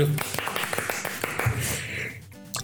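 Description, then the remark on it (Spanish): A burst of applause, many hands clapping in a dense, crackling wash of rapid claps for about two seconds, then tapering off into a few scattered sounds. “Aplausos.”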